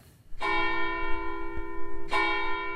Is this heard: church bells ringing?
yes